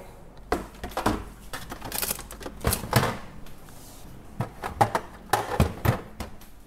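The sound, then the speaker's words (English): A whisk clatters against the inside of a bowl in quick, uneven bursts of clicking and scraping, moderately loud, with no one speaking, as pancake batter with a little added milk is mixed until no lumps remain. “Just mix it until there are no more lumps.”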